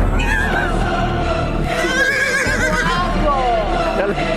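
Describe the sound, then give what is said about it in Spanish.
A horse neighs loudly, its shrill, wavering whinnies rising and falling across the whole stretch over a dense, busy background layer. “Hemos mejorado, ya no son gallinas, son caballos.”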